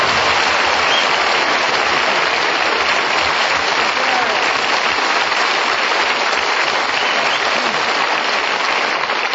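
A studio audience applauds steadily for about nine seconds, a loud, dense wash of clapping that holds at an even level throughout with no voices over it.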